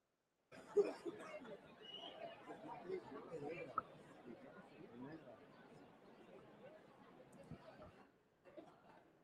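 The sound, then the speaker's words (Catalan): Continuous murmur of a large crowd gathered outdoors at a Carnival bonfire event, many voices blending into a steady babble with occasional laughter, moderately loud, easing slightly toward the end. “el que sentim és molta ramó de la gent que s'està plegant aquí a la”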